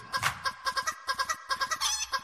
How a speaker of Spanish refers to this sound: ya ustedes escucharon una gallina ahora. So, aquí las gallinas no descansan, así que bienvenidos al gallinero.